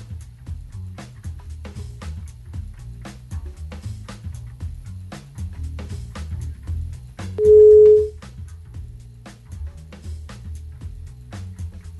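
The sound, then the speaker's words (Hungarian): A single loud, steady telephone dial tone sounds for about half a second during an attempt to call an interview guest again, sitting over continuous rhythmic background music with a thumping low end. “Ez is szét, mert akkor itt most mindennel van egy kis probléma, akkor is szerintem gyors zene, és akkor megpróbáljuk újra hívni az interjú eh, alanyunkat.”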